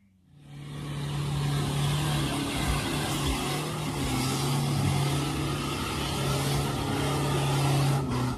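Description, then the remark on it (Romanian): A car engine catches after a brief quiet moment and then runs loudly, a steady rumbling drone with small surges in pitch, with no voices. “Și atunci când chem oameni care au o mașină care funcționează, Acum fiți atenți ce se întâmplă.”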